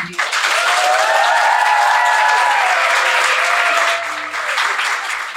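Thunderous applause fills the whole stretch, a dense, steady roar of many hands clapping at full volume, with a few whoops and cheers rising above it before easing slightly near the end.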